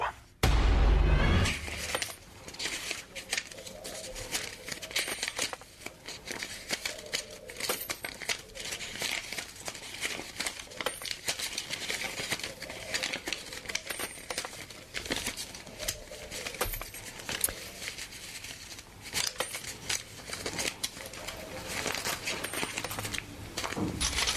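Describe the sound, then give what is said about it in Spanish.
Tricycle tires roll steadily over a rough surface, making a continuous gritty crackle and clatter with scattered sharp clicks, even throughout, with no voices. “de acuerdo con el equipo de en directo, estos son unas llantas de triciclo”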